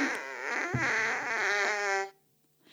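A single long, buzzy fart sound effect from the book Alle meine Freunde Furzi-Pups, with a wavering, sputtering pitch, lasts about two seconds, then cuts off abruptly, leaving near silence. It is loud, with no talking.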